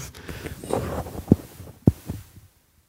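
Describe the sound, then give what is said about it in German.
Muffled rustling and scraping with two distinct soft thumps as a foam windscreen is put back onto an SM7B microphone, then near silence. No one speaks. “Deswegen macht ihn auch wieder drauf.”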